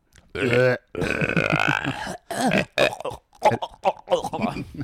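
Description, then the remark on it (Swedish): A person vocally imitates gagging and retching, a loud string of strained, guttural heaves and choking bursts lasting several seconds with short pauses between them. “Och hur låter det när är gag?”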